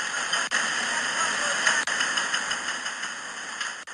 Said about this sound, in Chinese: 我们现在听到的声音，就是《报刊选读》首播开始前火神山医院建设工地的直播的声音。